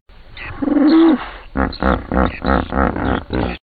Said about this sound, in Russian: И вот Николас Матевон создал целую коллекцию таких вот звуков бегемота, где он говорит, наверное, «я тут, ты где?», может быть, говорит «не приближайтесь», что-нибудь такое.